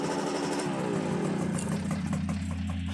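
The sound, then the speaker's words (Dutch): A small Vespa scooter engine putters, its pitch rising briefly as it revs before settling into a steady, throbbing idle. No voices. “Volgens de neus was die scooterclub een geintje. Een groep grote kinderen die door de stad tuften om hier en daar een slokje te drinken en een broodje te eten.”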